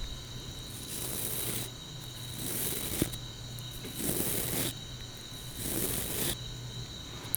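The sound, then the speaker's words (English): Four slow, even brush strokes sweep across a surface, each a soft bristly swish with brief pauses between them. No one speaks. “Here is a brush.”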